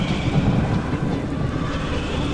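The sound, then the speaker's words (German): Storm wind roars steadily and loudly as a rising storm sweeps away a zeppelin airship, a dense blustery rush with deep rumbling underneath and no break for the whole stretch, with no voices present. “Sie eilen zurück und als sie es losmachen, wird das rappelnde und zappelnde, pirouettendrehende Zeitreiseluftschiff vom Sturm erfasst und davongefliegt.”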